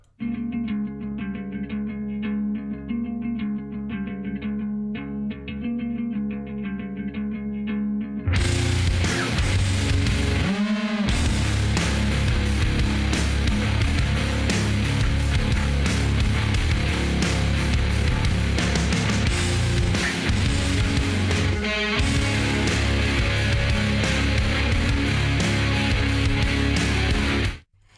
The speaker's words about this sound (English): so I'm going to play a track from their 2020 album